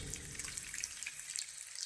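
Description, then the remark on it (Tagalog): Water runs steadily from a silver sink faucet behind a house, a continuous hissing splash with small bright droplet sparkles throughout, as someone plays with the water to bathe a doll; no voices. “Tumatambay ako sa likod ng bahay para maglaro ng tubig sa lababo.”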